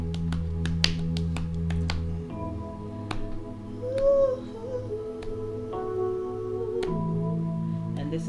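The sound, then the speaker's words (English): A slow hymn-like psalm tune plays steadily during a worship service, held chords shifting every few seconds at a moderate, even volume. Sharp clicks, like finger snaps, punctuate the opening seconds. No voices are heard. “You can hear the music?”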